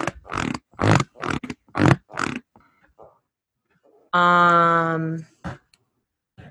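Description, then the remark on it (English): A bouncy office chair creaks through several quick rhythmic bounces, then lets out one long, loud, tonal squeak before going quiet. “Um, I have a bouncy chair, and it's a bouncy chair in my office.”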